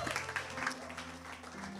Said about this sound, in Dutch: Geef hem een applaus.